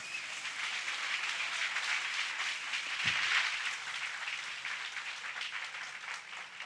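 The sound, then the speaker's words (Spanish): A church audience applauds Jesus steadily, a dense wash of many hands clapping at an even, sustained level with no pauses, swelling slightly midway before continuing without talk. “Y venga otro aplauso a quien resucitó y nos da la resurrección.”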